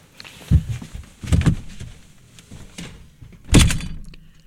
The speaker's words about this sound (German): Typisch Mann. Rennt raus und knallt Türen zu.